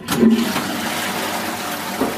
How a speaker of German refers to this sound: was ich auch noch wichtig finde, ist zum Beispiel der Druck von der Spülung.